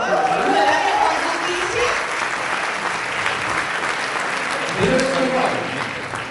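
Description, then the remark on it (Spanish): An audience breaks into sustained applause, a dense wash of clapping that stays steady and loud for several seconds, with a man's voice speaking briefly over it. “Por favor, aplaudan, no.”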